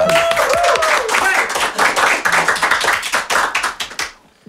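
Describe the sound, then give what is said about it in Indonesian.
A burst of applause, dense irregular clapping from a small group for about four seconds, with a brief voice at the start, then trailing off into quiet. “tepuk tangan dong ini”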